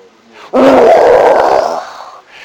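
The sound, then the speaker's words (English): A person lets out a loud, sustained mock lion roar imitating Aslan, a single rough growling bellow lasting over a second before trailing off, with no other talk. “And when he roars, I mean, she just falls back and everyone just, she shut up.”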